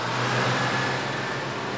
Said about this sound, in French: D'ailleurs, revenons tout de suite à Montgomery, car ça y est, tu entends oh! Son bus vient enfin d'arriver